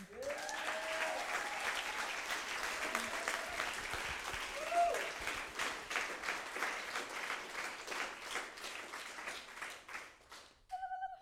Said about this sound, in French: Donc on peut encore les applaudir une fois.